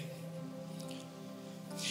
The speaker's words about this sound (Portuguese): É interessante que se eu abrir aqui, ela já está com pouca água, mas eu viro mais um pouquinho no meu copo.